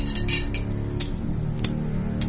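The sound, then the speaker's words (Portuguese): Metal hemostatic surgical forceps clink together in a few sharp, bright taps during a surgical operation as another pair is asked for, with irregular spacing over a steady low background hum and no talking. “Ó, me dá outra pinça aí, mostrar.”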